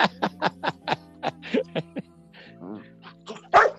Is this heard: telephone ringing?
no